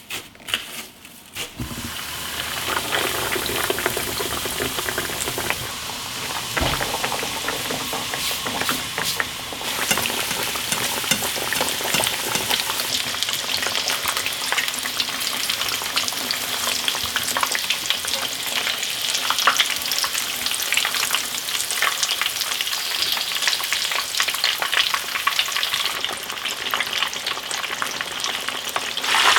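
Steady crackling and sizzling of tonkatsu, a breaded pork cutlet, deep-frying in hot oil, a dense bubbling hiss with sharp pops, continuous for the full length with no talking.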